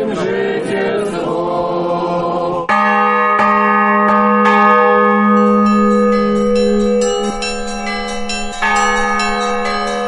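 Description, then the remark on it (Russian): A church bell, just blessed and sprinkled with holy water in a consecration rite, rings loudly and steadily, its deep tolls struck repeatedly with long shimmering overtones that blend together, resonant with no voices present. “Благословляється священце звон сій, окроплює води сія священне во ім'я Отця і Сина і Святого Духа.”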